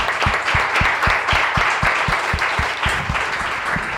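An audience applauds steadily, a dense wash of many hands clapping at a loud, even level, with a regular pulse of stronger claps cutting through the crowd noise.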